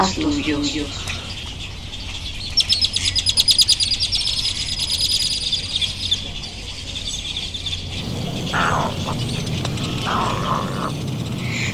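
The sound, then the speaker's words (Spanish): Birds sing and chirp along the Sabinal River in Tuxtla, with rapid high trills and tweets layered over a steady background murmur; the calls are busiest early, then thin out as the ambience shifts. “El sabinal apalpado a las garzas dedos dorados, al chipe arroyero, a la monjita americana, a la garza blanca.”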